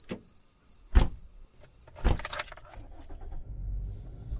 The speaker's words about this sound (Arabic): وهكذا انطلقت السيارة من جديد حاملة الشقراء التي تعطلت سيارتها في الواحدة صباحا